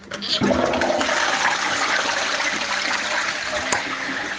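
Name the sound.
toilet being flushed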